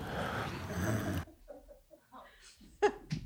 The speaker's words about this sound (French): C'est donc mon psy en train de dormir. Et depuis, à mon avis, euh, cinq bonnes minutes. Mais je m'en étais pas je m'en étais pas aperçu. Je viens de m'en apercevoir seulement maintenant. J'avais entendu quand même cette respiration très profonde.